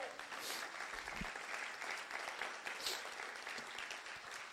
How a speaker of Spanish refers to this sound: Si usted lo quiere, denle un aplauso fuerte a Jesús.